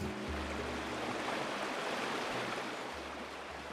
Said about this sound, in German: Regensburg in der Oberpfalz. Gleichmäßig und kraftvoll fließt die Donau unter der steinernen Brücke hindurch.